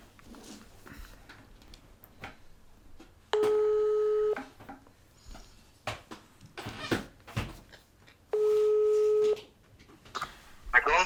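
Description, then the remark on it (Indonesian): An outgoing phone call to a listener rings through the line: two steady ringback tones, each about a second long and spaced several seconds apart, with faint handling noises and clicks in between. “Nah, jadi sekarang kita coba telepon ya curhaters kita kali ini.”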